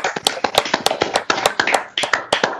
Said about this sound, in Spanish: Bueno, pues ahí nos unimos pues, al aplauso, ¿no? la verdad a todos ellos.